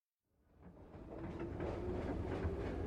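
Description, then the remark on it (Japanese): Steady rumble of a moving train heard from inside the carriage, with low rolling noise and faint rhythmic clatter building up from silence and holding at a constant moderate level, as the train heads for the next station, Shinkida. “7番電車内で放送しています”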